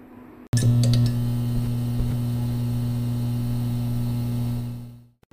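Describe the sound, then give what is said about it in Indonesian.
A steady electrical hum from a short-circuiting lamp being switched on in a classroom starts abruptly with a faint crackle, droning loudly and evenly for several seconds before fading out. No voices are present. “dia sadar bahwa suara itu berasal dari lampu yang koslet”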